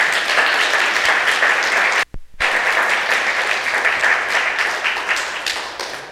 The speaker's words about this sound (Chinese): 我们用热烈的掌声感谢我们在座的母亲们。